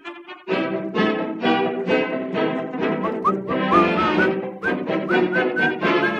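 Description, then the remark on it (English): A bright, upbeat football fight song with a whistled melody over a full, band-like backing. It plays loud and steady for several seconds, with no one talking. “Not too many songs anymore make you whistle.”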